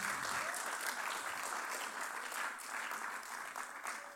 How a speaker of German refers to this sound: Hey, cool. Hey, danke euch vielmals. Gebt einen großen Applaus ähm, an die zwei.